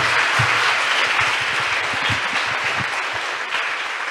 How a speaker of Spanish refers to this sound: Quiero, quiero que le demos un aplauso a este chavo.